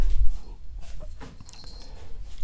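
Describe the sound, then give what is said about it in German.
A tired dog whimpers softly and pants in short, breathy bursts, fairly quiet, with no talking. “Ja, Dicker, du bist müde, das hört man doch.”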